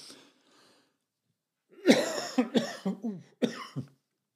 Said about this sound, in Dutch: net herstellende van een griepje. Het eh, blijft een beetje hoesten. Neem me niet kwalijk, maar het is even niet anders.